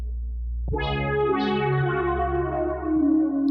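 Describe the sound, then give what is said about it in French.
A sustained, harmonically rich instrument tone, mono at the source and put through a reverb effect that gives it stereo, swells in with a wash of reverb and echo, its layered overtones lingering and shimmering for several seconds with no voices present. “Donc après, il met ça dans un effet, une petite reverb et tout, et t'as de la stéréo, mais à la base, le machin, il est mono, tu vois.”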